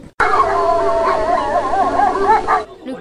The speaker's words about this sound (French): Un conducteur de traîneau tiré par des chiens.